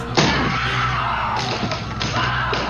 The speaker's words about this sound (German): Er schlug mit seiner Axt ein Loch in die Tür und blickte hindurch.